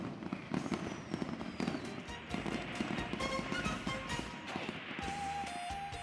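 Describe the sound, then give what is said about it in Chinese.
Fireworks and firecrackers, including thousand-shot firecracker strings, whistling rockets and double-bang firecrackers, explode at Chinese New Year in a dense, continuous barrage of sharp cracks and pops, loud throughout, with a few whistling tones rising above the crackling. “一千响的钢鞭、窜天猴、二踢脚不绝于耳，璀璨夺目的烟花在空中绽放，真是爆竹声中一岁除，千树万树梨花开，十声连百神道宁，八方上下皆和平。”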